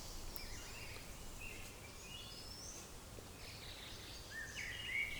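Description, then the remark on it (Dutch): Birds waking and settling to rest sing quietly around a hut in the Achterhoek, with scattered chirps and short trilling phrases over a steady outdoor hush. There is no talking. “en luisteren we in mijn podcasthutje in de achterhoek naar de vogels die ontwaken en die weer gaan rusten.”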